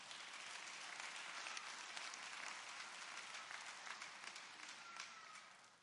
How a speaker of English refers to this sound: Let us give the Lord another hand clap for our pastor.